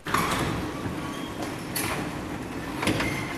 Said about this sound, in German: Unsere Gummomobilreise beginnt jeden Morgen mit diesem Geräusch. Wenn wir die Garage aufmachen, ins halbdunkle tappen, wo unser Bulli steht, dieser grüne Knubbel mit seinen runden Augen, Jahrgang 1978, der noch halb schläft, genau wie wir manchmal.